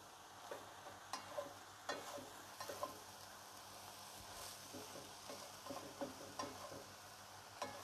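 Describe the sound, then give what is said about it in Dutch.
Food sizzles steadily in a pan with the kitchen extractor fan switched off, a soft, continuous crackling hiss punctuated by occasional sharp clicks and scrapes of a utensil stirring, fairly quiet and with no voices. “Ik wil niet de hele tijd zo'n zo'n ruis door het koken heen hebben.”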